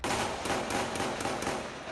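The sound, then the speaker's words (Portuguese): Intense gunfire during a shootout between police and drug traffickers in the west zone of a city, recorded by residents: a rapid, irregular string of sharp cracks and pops over a dense, noisy background, several shots in under two seconds, with no voices. “Os moradores registraram o intenso tiroteio.”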